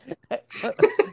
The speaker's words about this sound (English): I'm laughing and coughing.